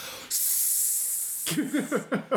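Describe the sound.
A voice imitates the long, steady hiss of a disapproving audience, a sharp sustained sibilant lasting about a second, fairly loud, then breaks into short bursts of talk.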